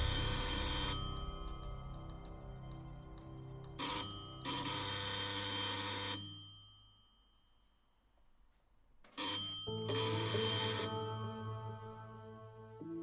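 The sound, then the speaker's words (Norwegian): An electric doorbell rings in several long, loud bursts with short pauses between them, a harsh metallic trill heard alone with no voices. “Da ringte det på døren.”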